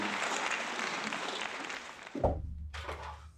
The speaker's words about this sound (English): Round of applause. Round of applause. That's more than I could do on the piano for sure.